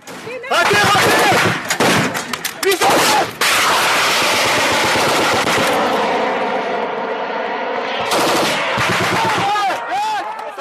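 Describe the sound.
Rapid bursts of loud gunfire from French special forces soldiers in the desert, firing at an approaching armoured civilian car packed with explosives and driven by an IS suicide bomber, crack out, then merge into a dense, continuous roar of shooting before separate shots return; voices can be heard shouting amid the firing.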